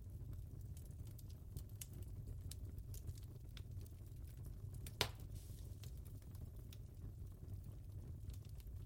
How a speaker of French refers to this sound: Observez ses mouvements, la manière dont celui-ci danse comment le bois noircit-il par endroits au moment où il se consume.